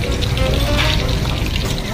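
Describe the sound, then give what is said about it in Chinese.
Oil sizzles steadily around meatballs deep-frying in very hot oil at medium-high heat, a continuous hissing wash with faint crackles scattered through it, fairly loud and unbroken for the whole stretch. “哎有噼噼啪啪有没有听到？哇，噼噼啪啪的声音，很好听哦啊。”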